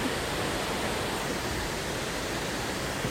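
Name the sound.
waterfall rushing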